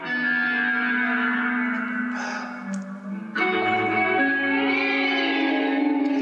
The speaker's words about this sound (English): This is this is probably I know what that is. That all those weird sounds are the the Roland space echo or chorus echo. I can't remember what it's an old box. Yeah, they're still out there.